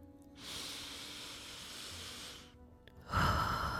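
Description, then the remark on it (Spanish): A long, steady breath drawn in during a meditation breathing exercise, a soft airy hiss lasting about two seconds, followed by a brief pause and the start of a fuller, louder breath. “Así vas a lograr identificar dónde se manifiesta tu respiración. Inhala.”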